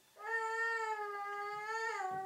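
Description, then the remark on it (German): A baby lets out one long, sustained wail lasting about two seconds, loud, rising slightly in pitch at the end before cutting off. No one speaks. “Nebenbei ganz, ganz ungekünstelt ein Baby”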